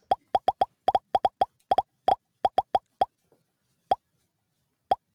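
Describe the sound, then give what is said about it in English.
A rapid run of crisp popping sound effects, bright, firing in quick clusters before thinning out to a few scattered final pops. No voices. “Let's pop it up one last time.”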